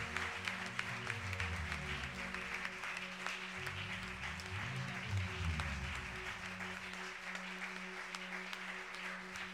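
An audience applauds and cheers for several seconds, acclaiming God for the life and ministry of their accompanying priest, a dense, steady wash of clapping with raised voices, while a low droning tone hums beneath it throughout.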